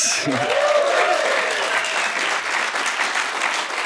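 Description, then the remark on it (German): A live studio audience at the live stage of a radio studio in Leutschenbach applauds steadily with dense, sustained clapping that fills the whole stretch, joined by a brief vocal exclamation near the start and some cheering mixed in. “Ihr hört es, wir senden heute direkt aus der Livestage stage hier im Radiostudio.”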